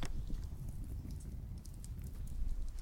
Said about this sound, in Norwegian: det er lyden av eh, en bålpanne.